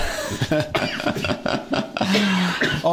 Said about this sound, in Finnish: Että tämä on selityksenä siihen, jos te kuulette ne yskät vielä siinä. Mä aion yskästä nyt taas kohta.